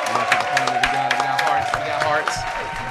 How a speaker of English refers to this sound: We clap it at one time for that, please.